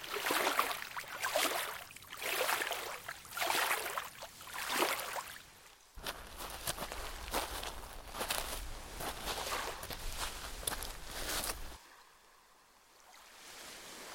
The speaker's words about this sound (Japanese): ボートが進むにつれて、徐々に海は浅くなり、穏やかな波が打ち寄せる浜辺に到着しました。